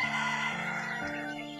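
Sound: rooster crowing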